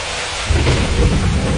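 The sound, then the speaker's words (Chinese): Steady, heavy rain on the streets on the night of May 13 hisses across the whole clip, and about halfway through a deep rumble of thunder rolls in and swells the loudness for the rest of it. No one speaks. “五月十三日晚上的大雨浇散了街头躲避地震的人们”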